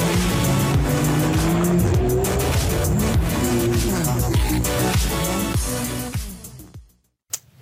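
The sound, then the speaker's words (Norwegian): A Porsche sports car engine revs hard under heavy throttle, its pitch rising and falling, while tires squeal and skid on sand. Loud, with no talk, before it fades out near the end. “hevet den så mye du kan, så er det bare å gi gass, mye gass, så du ikke setter deg fast i sanden.”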